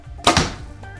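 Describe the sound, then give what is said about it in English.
A super heavy 687-grain American arrow fires from a bow at 234 feet per second and strikes a target with a sharp, solid thunk, followed by a brief second impact and a fading rattle. No one speaks. “And our last arrow, our super heavy one, the American 687.”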